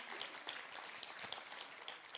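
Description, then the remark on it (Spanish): A crowd applauds steadily in praise of the glory of the Lord, a dense wash of many hands clapping at once with sharp individual claps popping out here and there, sustained evenly throughout. “Aplaude la gloria del Señor si tú lo crees.”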